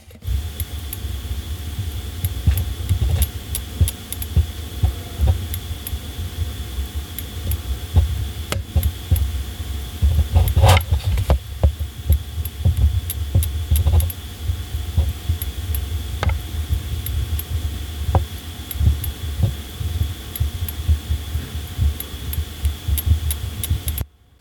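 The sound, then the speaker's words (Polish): A Dairon battery charger with a fully charged battery, held up to the microphone, gives off a steady low throbbing hum with a faint high whine above it and occasional small clicks, continuous throughout with no voices. “żebyście Państwo wiedzieli, czym się różni dźwięk naładowanej baterii od dźwięku baterii, który się ładuje.”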